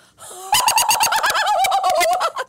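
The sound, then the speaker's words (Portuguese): A voice imitates the very loud laugh of a woman at the next table during dinner: a brief rising note, then a rapid string of shrill, piercing cackles, loud, pulsing steadily for about two seconds before stopping abruptly. “Eu juro, eu juro que o riso desta mulher, ela é mulher, era assim.”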